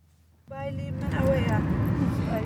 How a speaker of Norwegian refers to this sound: Vi sitter i en bil på vei til fjellene.